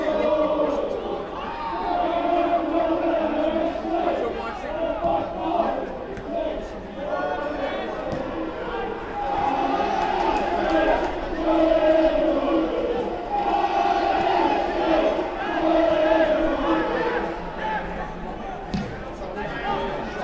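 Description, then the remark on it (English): A steady wash of virtual crowd noise at an AFC Wimbledon football match against Doncaster, generated by fans hitting an app's applause button: murmuring chatter and rising cheers that swell and dip over about twenty seconds, fairly loud and continuous with no single voice standing out. “Um, the more you hit the applause button on the app, um, the more noise it actually generates in the crowd.”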